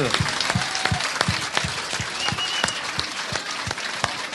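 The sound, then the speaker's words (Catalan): Loud audience applause for Amado Jaén, a dense wash of many hands clapping with a few sharper individual claps standing out in a steady rhythm, sustained throughout with no talking. “aplaudiment per Amado Jaén, sisplau, ben fort, que arribi al cel.”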